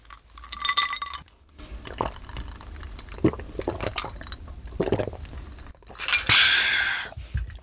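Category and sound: household object, glasses clinking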